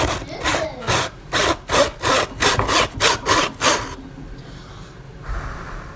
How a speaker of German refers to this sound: Säge.